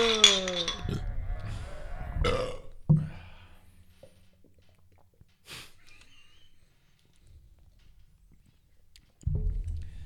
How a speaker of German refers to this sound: Lassen Sie uns anstoßen vor Auf die Fungokalypse!